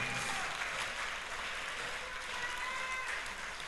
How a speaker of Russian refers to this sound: Дай огромные аплодисменты Господу. Дай огромные аплодисменты Господу. Дай большие аплодисменты Господу.